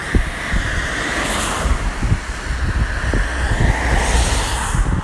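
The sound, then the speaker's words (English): Continuous roar of passing car traffic outdoors, with broad whooshing swells as vehicles go by, mixed with gusty wind rumble and low thumps on the microphone; no one speaks. “Too many cars.”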